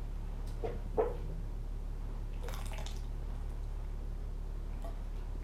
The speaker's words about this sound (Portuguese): Deixa eu tomar um golinho de água.